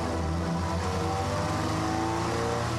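A motorcycle engine roars steadily at high revs, loud, its droning hum holding throughout without pause and with no voices, as the motorcycle is ridden fast through the outskirts of a city.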